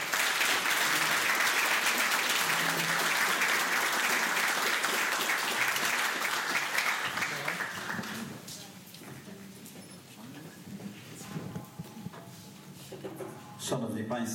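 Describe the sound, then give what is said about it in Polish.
Loud, dense audience applause for Włodzimierz Skalik, vice-president of the Konfederacja Korony Polskiej, as he is introduced, fills the first eight seconds, then thins out into scattered claps and room noise before a few louder bursts near the end. “Wielkie brawa!”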